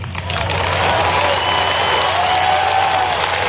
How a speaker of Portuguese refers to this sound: Abre aspas para Donald Trump, aplausos aí, né, da convenção do Partido Republicano para traduzir o que foi que disse Donald Trump aí nesse trecho do discurso na convenção do Partido Republicano.